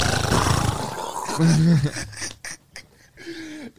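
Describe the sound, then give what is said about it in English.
A voice imitates a taped-on trash bag flapping in strong wind on the highway: a loud, rough, roaring whoosh followed by a series of rapid, fluttering bursts that trail off into softer vocal noise. “So we yo, we had a fucking trash bag, fucking taped on, and like all you would hear when we was on the highway.”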